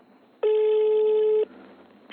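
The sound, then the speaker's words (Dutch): A telephone ringing tone on a call to the municipality (gemeente) of Os: a single steady, mid-pitched electronic beep lasting about a second, loud and clean, followed by faint line hiss before the next tone begins to sound. “Dan zeg ik, nou bel de gemeente maar.”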